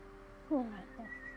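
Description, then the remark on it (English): A failed attempt at whistling: a short puff of breathy air with a faint, wavering tone that quickly fades, followed by soft hiss. No talking, fairly quiet. “No, it's just air.”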